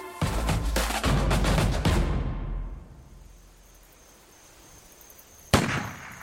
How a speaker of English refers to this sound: Bang! She blinked with every gunshot.